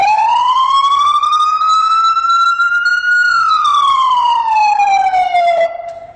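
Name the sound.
emergency vehicle siren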